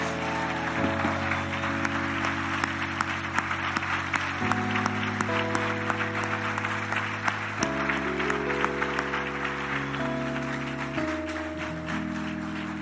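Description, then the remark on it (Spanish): A crowd at a church service claps steadily and continuously throughout, a dense rain of hand claps layered over sustained organ-like keyboard chords that shift every few seconds. “para él, el aplauso para él.”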